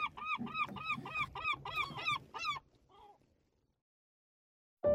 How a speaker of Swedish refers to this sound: Nu kommer en mås.